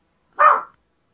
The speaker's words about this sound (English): Sorry, I have a dog barking for no reason. Oh, is that Tucker? Yeah. Tucker, shut up! Sorry, to listeners. you got a dog growling and barking for no reason. Oh, well, must be something.